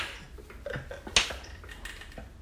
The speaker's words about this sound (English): No, it's me. I'm the one clapping. you didn't recognize me, dear? Not the sound of your applause. That's. Oh. I... Guess I really haven't been there for you as a father if you can't even recognize the sound of my hands hitting